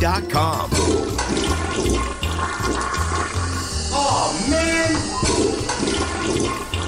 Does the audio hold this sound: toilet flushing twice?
yes